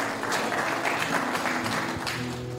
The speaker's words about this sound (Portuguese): Glória a Deus, aplauda Jesus onde você está.